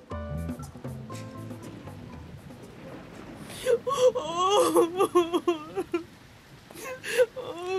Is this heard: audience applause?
no